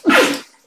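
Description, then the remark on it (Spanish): A single loud sneeze: a sharp explosive burst that trails off into a breathy fade within half a second, with no talking. “Perdón. Salud.”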